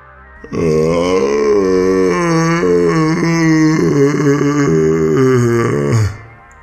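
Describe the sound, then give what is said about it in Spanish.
A long, hoarse guttural groan from a human throat, rough and croaking like an irritated cow crossed with a frog, held loud and steady for about five seconds before cutting off. Likely a voice imitating it. “La cabeza de Abraham se hizo un poco hacia atrás, al mismo tiempo que otro ronco sonido salía de su garganta. Este sonaba como a una vaca irritada y una rana enojada.”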